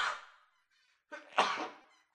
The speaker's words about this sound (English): Salute, salute. You see what I mean? Sneezed.